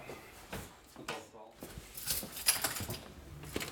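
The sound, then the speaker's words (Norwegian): A large bunch of keys jangles on the hip of a uniformed prison officer at Kongsvinger prison in Norway, in short, irregular metallic bursts, moving, with brighter clinks clustering near the middle amid soft handling and shuffling noises. “Jeg blir fulgt inn i Kongsvinger fengsel av en uniformert betjent med et stort nøkkelknippe klirrende på hofta.”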